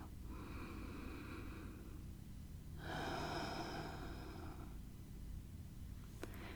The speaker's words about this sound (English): I hope you've still been breathing along, so let's take a deep breath in and then take a deep breath out with a sigh.